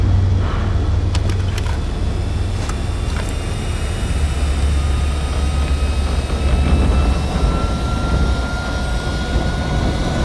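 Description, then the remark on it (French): A loud, steady jet aircraft engine roar in flight fills the whole stretch as the engines are pushed to maintain lift while the plane, with icing wings and engine air intakes, loses altitude; a dense rushing drone with a deep low rumble and thin high whines drifting slowly in pitch. No one speaks. “Poussez les moteurs, il faut maintenir la portance.”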